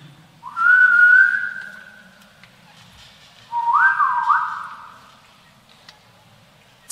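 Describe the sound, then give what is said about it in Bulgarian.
Someone whistles two separate sliding tones, each lasting over a second, with a short pause between them. The whistling is clear, with no talking. “Това е също звука, може да си го ползвате вкъщи, да свирите.”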